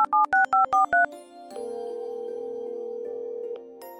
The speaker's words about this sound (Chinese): 你径直的来到客厅的柜子，慌忙的翻起女儿所在的幼儿园的联系手册，然后在电话前一个接一个的拨打过去。